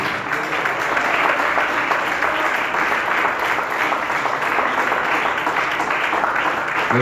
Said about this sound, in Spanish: Denle un fuerte aplauso, que el Señor le bendiga.